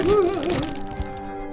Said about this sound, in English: Try a bite of this though, because it looks scary. yes. yes. Chew it. Absolutely got to chew it into the microphone. Blueberry opening up.